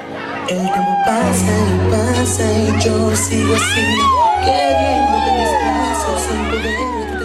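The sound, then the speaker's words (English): A crowd at a bachata congress in Orlando, Florida, cheers loudly and continuously for about seven seconds, with many overlapping high-pitched whoops and shouts rising and falling over a steady low drone, heard in a homemade phone video of a couple dancing bachata. “We are hearing a YouTube clip of a Bachata Congress in Orlando, Florida.”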